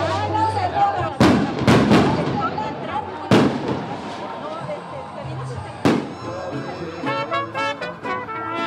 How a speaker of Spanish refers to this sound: En el día las calles se llenan de desfiles y procesiones religiosas. Por la noche lanzan fuegos artificiales. No es solamente una fiesta en honor a la Virgen, sino también a los migrantes que regresaron sanos y salvos a su casa.